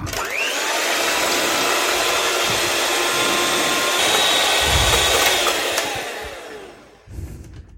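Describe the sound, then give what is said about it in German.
An electric hand mixer whirs loudly and steadily for about seven seconds while whipping egg whites with a drop or two of lemon juice and a pinch of salt, its broad motor hiss holding an even pitch before it cuts off abruptly. No one speaks. “So, das war laut, aber jetzt sind wir soweit erstmal fertig mit, mit dem lauten Küchengeräten.”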